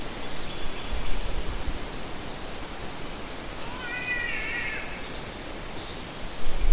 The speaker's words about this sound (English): ah, the green catbird and eastern whipbird in the background also.